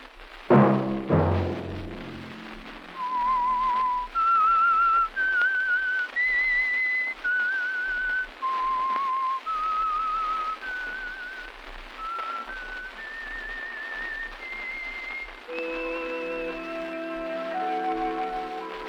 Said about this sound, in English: Let that whistle be your signal for the Signal Oil program, The Whistler, each Sunday night at the same time.